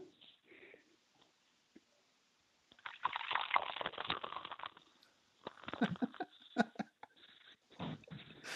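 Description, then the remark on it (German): Liquid splashes and gurgles as beer from a typical Bavarian bottle is poured into a glass, a fizzy rushing stream with brief pauses and a few clinks, moderately loud, with no talking. “Ich schenke jetzt das Bier ein, ja?”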